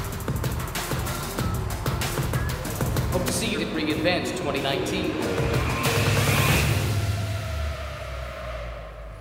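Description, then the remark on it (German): Small 1/18-scale RC model cars, fully autonomous through reinforcement learning and fitted with a camera, dual-core processor and gyroscope, race as developers compete for the fastest lap, their motors whining up and down in pitch amid bursts of tire squeal and clatter, while a crowd murmurs and people chatter throughout. “18th scale RC cars that are fully autonomous thanks to reinforcement learning. Developers will compete for the fastest lap of the day.”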